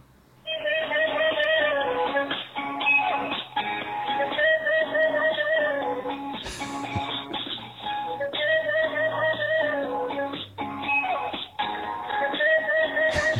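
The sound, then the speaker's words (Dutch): A catchy, bright whistled melody rides over a steady, upbeat song, its short looping phrases repeating at a constant loud level throughout with no voices. “Dat bedoel ik dus met dat aanstekelijke fluitje.”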